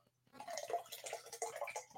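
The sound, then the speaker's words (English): A drink is poured into a glass in a steady splashing stream that starts after a brief silence and runs for just under two seconds, fairly quiet overall. “I love how you just poured that drink, Fred, and it sounded like you were taking a piss.”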